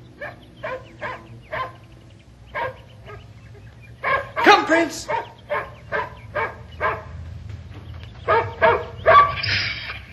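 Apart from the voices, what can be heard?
dog barking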